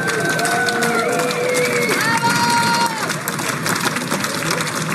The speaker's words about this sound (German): Können wir nochmal klatschen miteinander, so richtig laut hier erinnern. Christoph Strasser ist bei uns angekommen.